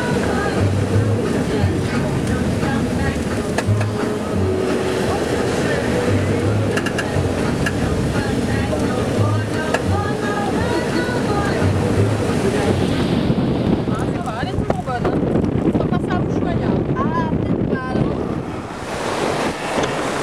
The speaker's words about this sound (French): Et euh, maintenant, on va rencontrer euh, de plus en plus fréquemment des, conditions de mer musclées et difficiles. Donc là, on en a un petit aperçu. Et après, la suite, ce sera, ce sera plus souvent ça.